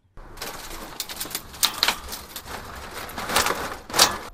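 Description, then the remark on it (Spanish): Steady crackling of burning branches in a campfire, with irregular sharp pops and snaps over a soft hiss of flames, a few louder cracks standing out. No one speaks. “Estos son las ramas, el fuego en una hoguera.”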